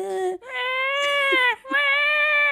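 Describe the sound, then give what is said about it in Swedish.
Someone imitates a whining baby in a pram, voicing three loud, nasal wails: a brief one, a long drawn-out moan, then another sustained whine after a short breath. “Eller så är det ungen i barnvagnen som bara...”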